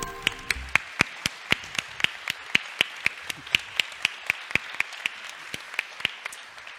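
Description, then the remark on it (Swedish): Steady applause made of sharp, evenly paced claps, roughly three or four per second, continuing at a constant loudness for several seconds with no voices. “En stor applåd för Johan Löv!”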